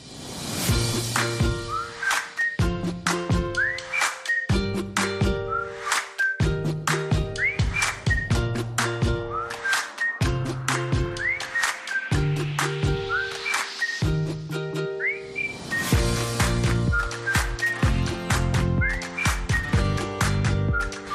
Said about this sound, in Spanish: lo primero que quiero que hagáis es que oigáis la sintonía que tenemos preparada para esta sección.